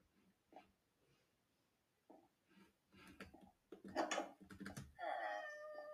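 A cat in a video game meows near the end, a drawn-out tonal cry with clear harmonics, preceded by scattered clicks and soft tapping sounds like keys or game noises.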